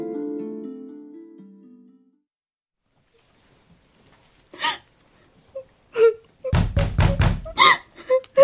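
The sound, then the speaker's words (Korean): A drawn-out moaning tone fades to silence, then knocking on a door begins with a few scattered raps before breaking into a rapid, loud run of pounding knocks. “문 열어봐.”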